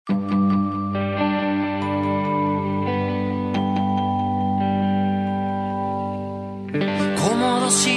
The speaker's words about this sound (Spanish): Vamos a tener novedades próximamente, pero esta misma semana la mayor novedad es un nuevo tema de este mismo disco. Es un adelanto,